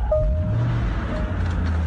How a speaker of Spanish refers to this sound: así que el carro debe estar en buenas condiciones. Prendamos el carrito, mal. Hágale. Prendamos el carro, ahí va.